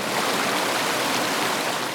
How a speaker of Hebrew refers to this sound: מעל נהר נהריים, הנהר הכי גועש במצרים.